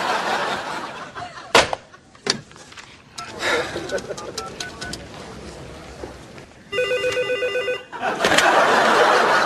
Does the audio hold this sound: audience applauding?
no